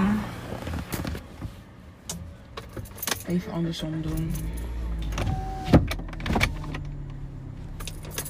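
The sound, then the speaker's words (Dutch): An electric car window whirs steadily for a few seconds as it is opened, a low motor hum under intermittent talking, with some light jangling and clicks. “heel even het raam ook open Het is warm jongens.”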